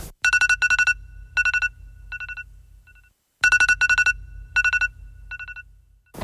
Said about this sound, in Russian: То есть, как, если у тебя есть iPhone и у тебя звонит будильник, это, как, этот звук сделал … там Так где-то... вот кого нужно ненавидеть по утрам, да?